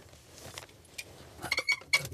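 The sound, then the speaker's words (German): A quick metallic jingle of a key being thrown into an overflowing wastebasket outside a multiplex cinema, a few bright clinking rattles bunched toward the end, moderately loud with no talking. “Heinlein wirft den Schlüssel in einen überquellenden Papierkorb vor dem Multiplex-Kino”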